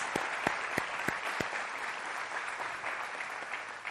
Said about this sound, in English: Let's give these guys a big round of applause. Thank you so much.